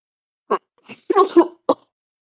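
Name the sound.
coughing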